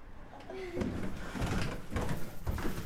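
Footsteps thud down a house's basement stairs at a steady pace, followed by the rustling, swishing clatter of a glittery strip curtain, which serves as the door to a bedroom, being pushed aside, moderately loud.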